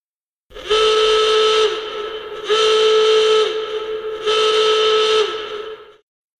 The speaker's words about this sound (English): The alarm was howling.